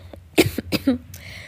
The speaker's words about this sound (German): Boah, Leute, ich bin krank. Ich entschuldige mich schon mal, falls ich hier ins Telefon husten muss.